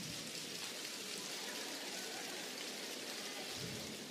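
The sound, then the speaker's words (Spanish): Dense, steady patter of three-finger clapping by a church audience imitates heavier rainfall, a continuous hiss of many small taps filling the whole stretch at an even, fairly loud level with no voices. “Tres dedos, tres dedos. Miren cómo la lluvia más intensa.”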